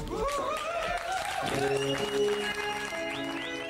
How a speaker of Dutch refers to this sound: het publiek zit er bovenop, dat hoor je. Die, die, eh, echt ertussen en, er, en er langs en eronder. Ja, ja, ja dit was wel de sfeer ongeveer.